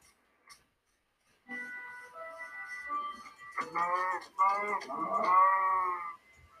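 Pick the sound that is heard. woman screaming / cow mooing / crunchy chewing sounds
cow mooing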